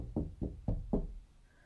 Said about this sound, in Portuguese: Ela bate na porta e espera.